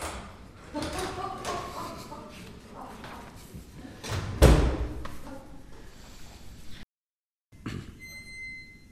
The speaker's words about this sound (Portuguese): Felizmente tinha sempre consigo uma segunda chave. E para não falhar de novo, concentrou-se totalmente na tarefa, esquecendo assim por momentos os seus raciocínios. E desta vez a porta abriu-se.